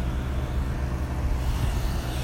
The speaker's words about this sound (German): Neben mir fahren Autos gerade.